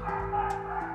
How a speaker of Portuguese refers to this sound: desculpem pelo barulho do cachorro, né? Do vizinho.